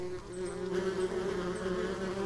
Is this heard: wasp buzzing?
yes